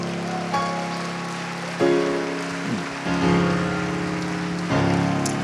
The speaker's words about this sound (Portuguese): E um lindo aplauso.